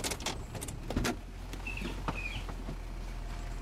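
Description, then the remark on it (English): A Double Z Towing Company tow truck pulls up and idles with a steady low engine rumble, while a burst of clanks and rattles opens the scene and a couple of short squeaks follow. “We got a ride. A, a tow truck.”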